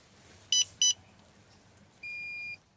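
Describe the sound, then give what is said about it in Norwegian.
An alcohol interlock breathalyzer in a car of the transport firm Nærtjenester in Florø beeps as its button is pressed and a deep breath is blown into the mouthpiece before starting the car: two short, high electronic bleeps in quick succession, a pause, then one longer steady tone, over a low background rumble. “Et trykk på alkolåsen og et dypt andedrag.”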